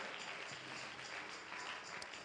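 A church audience claps hands in praise of the Lord in a steady, dense wash of applause, sustained without a break across the whole moment, with a faint murmur of voices underneath.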